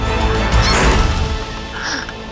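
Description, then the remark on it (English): The door of the captain's quarters on a pirate galleon bursts open with one loud crash, a heavy thud and clatter that quickly settles into a faint lingering rattle and creak. “A door bursts open.”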